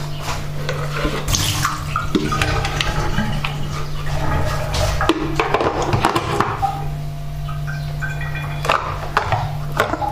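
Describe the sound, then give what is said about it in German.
Steady running water pours from a tap into the plastic water tank of a coffee machine, with occasional clunks and knocks of handling, continuous throughout. A low hum sits underneath, and no one speaks. “So, und jetzt noch den Watertank.”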